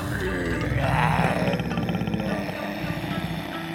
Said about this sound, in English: Lion growled and took off after Rabbit.